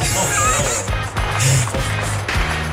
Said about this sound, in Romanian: Artificii pentru ascultătorii noștri care se sperie de tiruri. Sperăm să nu se sperie și de artificii